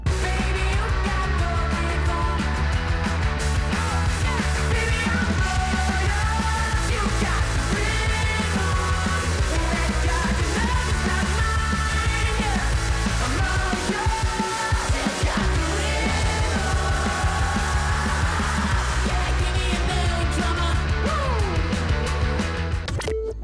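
A loud, full-band rock song plays continuously, with a steady driving bass and drum groove under melodic guitar and vocal lines, no talking over it.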